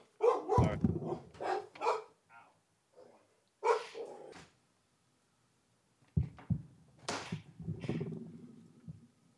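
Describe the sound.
Dogs at a home bark in loud, sharp bursts, several yaps in quick succession, then a pause before another round of barking, while a file cabinet is dropped off outside the door. Faint voices mix in at moments.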